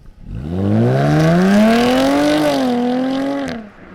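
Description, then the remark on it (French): A manual-gearbox Jaguar F-Type sports car of 340 or 380 horsepower revs its engine once, loudly, its pitch sweeping upward over a couple of seconds, holding high, then dropping off abruptly at the end. No one speaks. “C'est la seule F-Type disponible en boîte méca.”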